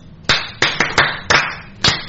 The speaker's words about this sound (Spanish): A mí me da miedo seguir comentando, por eso aplaudo